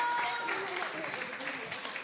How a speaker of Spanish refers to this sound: Muchas gracias. ¡Un fuerte aplauso! Gracias, padrinos.